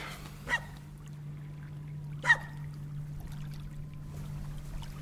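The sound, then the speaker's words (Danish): Quiet water laps softly at the shore, with two brief splashes standing out over a steady low hum and faint background wash. No one speaks. “Samtidig er lyden højere med bølgerne, end den er lige nu.”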